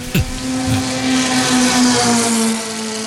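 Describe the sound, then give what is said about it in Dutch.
An MG car engine idles steadily, a constant mechanical drone with a strong low hum and a brief thump at the start, no voices present. “Zo gezond klonk Ferris MG voor de grote klant.”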